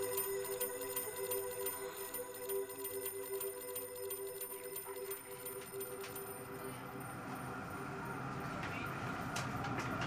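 A tram in the Pontanezen district rolls by, its steady electric whine humming at first, then giving way to a swelling rumble of wheels on rails that stays loud until the end.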